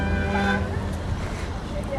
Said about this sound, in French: Plus que les vélos, je dirais une voiture. Pas une voiture privée, c'est plutôt quelqu'un qui est en train de travailler.